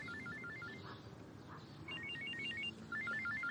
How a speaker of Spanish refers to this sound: La mujer se aleja para contestar al teléfono.